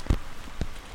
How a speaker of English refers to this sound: And we were supposed to get a couple inches of snow tonight, but um, we got rain. Lots of rain.